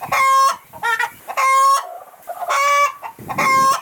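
Several loud chickens squawk and cluck in quick bursts, harsh nasal calls repeating in a choppy rhythm with short gaps between them.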